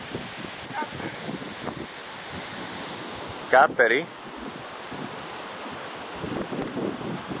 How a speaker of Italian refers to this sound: in fondo in quella valle si chiude ci dovrebbe essere T-Synth al fondo della valle con le cascate cascate di Tissint con il laghetto dei pesce gatto col canale che porta l'acqua alle palme